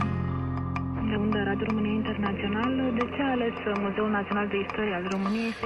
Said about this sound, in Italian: La sigla di interferenze annuncia l'ingresso in studio